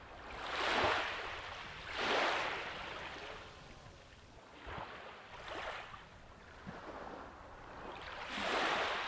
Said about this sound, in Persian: فعلا ما باهاتون خداحافظی میکنیم تا با هم به صدای دریا گوش کنیم.